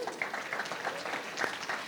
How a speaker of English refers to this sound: Give God a big hand clap of praise.